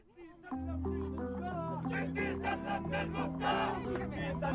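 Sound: crowd chanting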